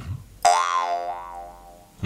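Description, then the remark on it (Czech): A jew's harp (brumla) is plucked once and rings with a buzzing, twangy fundamental drone, its bright overtones, shaped by the player's mouth cavity, shifting and wobbling as it sustains and fades, followed by a second pluck at the end. “Tady je základní tón, tohle to je brumla, jo, když to udělám takhle, je tam mhm.”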